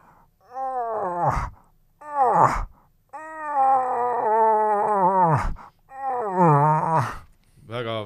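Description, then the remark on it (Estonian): A person imitates a moose call with four drawn-out, nasal moaning wails, each wavering in pitch and dropping off at the end, loud and separated by brief pauses. “kas äh, sedasama häält sa oled teinud äh, nelikümmend minutit põhimõtteliselt mingite äh, mõneminutiliste vahedega järjest ja pea iga kord, kas sa oled rääkinud vist niimoodi, et pea iga kord on tulnud põder vaatama?”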